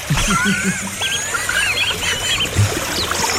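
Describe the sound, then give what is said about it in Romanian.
Small birds chirp and twitter steadily, several overlapping high calls repeating in quick bursts, over a low background rumble. No one speaks. “Păsărele.”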